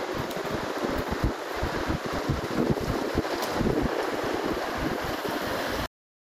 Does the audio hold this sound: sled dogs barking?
no